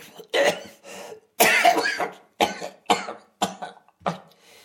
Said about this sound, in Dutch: Dat hoesten is nieuw. Ja, dat is eh, nieuw. Weten ze al wat het is? Ze weten het niet. Of ze zeggen het niet.